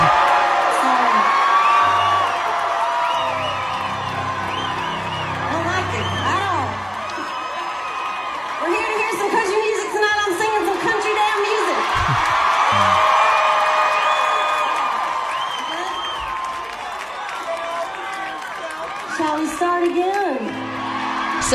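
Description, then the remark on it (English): A large concert crowd cheers and applauds without letup, with whoops, shouts and high yells rising over a dense wash of clapping and crowd noise. “the crowd they nice. cheer and applaud.”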